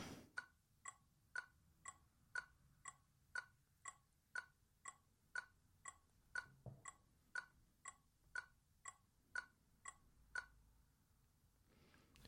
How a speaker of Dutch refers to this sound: Zet het nog eens aan ons lieve klokje.